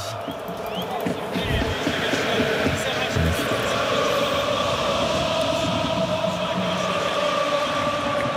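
A huge stadium crowd of Racing Club de Lens supporters sings a slow anthem in unison, thousands of voices blending into a loud, sustained, echoing chorus that fills the whole clip without pause.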